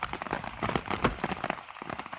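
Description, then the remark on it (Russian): Steady rain patters on a hard surface, a dense, continuous spatter of drops at moderate loudness with no voices. “Так, меня вообще заливает.”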